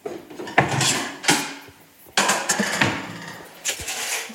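A refrigerator door opens and kitchen items are handled while lunch is being prepared, with several sharp clunks and rattles followed by shuffling and clinking, no talking.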